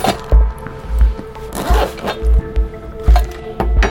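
Soft handling of a leather case as a man sitting on a sofa in his living room takes it out: rustling and creaking, a brief zip-like rasp as it opens, and several muffled low thumps as it is set down and moved. No one speaks.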